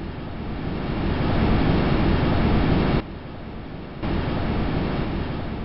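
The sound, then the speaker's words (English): Gusts of Titan's dense nitrogen atmosphere rushing around the descending Huygens space probe, recorded by its microphones on the way to the surface: a dense static-like roar and hiss that swells, drops quieter for about a second, then surges back. No voices. “When we really listen, what at first sounds like static is actually gusts of wind.”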